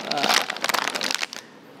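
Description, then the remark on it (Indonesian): Dense crinkling of a plastic snack wrapper on a product sample being pulled open, a rapid burst of crackles for about a second before it tapers off into quiet. “Jadi uh, gigit aja lah tadi gue coba uh, buka tuh susah makanya ada gunting apa gigit aja gigit”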